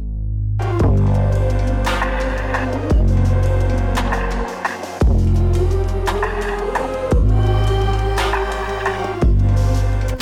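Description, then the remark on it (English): A heavily distorted bass synth, a sine wave with loads of distortion added, plays loud, gritty sustained notes, shifting to a new note roughly every two to three seconds, with no voices. “Uh, but yeah, what I did is I added loads of distortion on, on that thing and to make it sound like this.”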